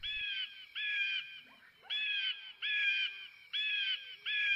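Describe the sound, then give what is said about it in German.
An eagle in flight screeches six times in quick succession, each call a loud, harsh, slightly falling cry, with short gaps between them and no voices. “Oh, da kommt ein Adler geflogen.”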